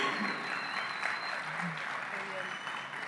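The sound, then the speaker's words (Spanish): An audience applauds steadily for about three seconds, a dense wash of clapping at an even loudness, with faint voices and murmurs mixed in underneath. “¿La, ¿La, aplaudieron ya?”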